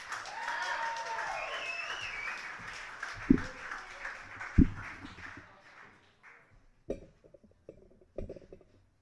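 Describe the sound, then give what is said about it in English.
Audience applause at a poetry event after a poet's scores are announced, a dense wash of many hands clapping that holds steady for several seconds, then thins out and fades, with a few scattered sharp claps and thumps trailing at the end. “All right, let's keep that applause going.”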